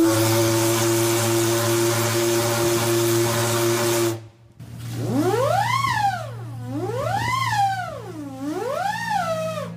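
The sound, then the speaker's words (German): The steam whistle of the steam icebreaker Stettin in Hamburg harbour gives a long, steady hissing blast, stops briefly, then sounds again with a wavering pitch that swoops up and down three times, loud. “Das ist ja ein Schiff, das man hier im Hamburger Hafen im Sommer öfter hört, weil es auch öfters unterwegs ist.”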